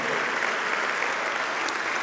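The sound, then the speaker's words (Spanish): A church audience claps steadily together as applause given to Christ, a dense, even wash of many hands sustained at a constant level for about two seconds with no voices standing out. “Denle un aplauso a Cristo, amado hermano.”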